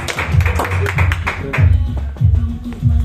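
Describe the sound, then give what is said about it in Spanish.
An audience breaks into steady, lively applause for the host, many hands clapping with voices calling and cheering underneath the whole time. “Un Fuerte aplauso para su anfitrión, amigos.”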